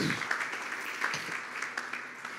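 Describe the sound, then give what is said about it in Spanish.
A crowd applauds for the Lord, many hands clapping in a dense, continuous patter with a few sharper individual claps standing out, moderately loud. “¿Cuánto da un aplauso al Señor?”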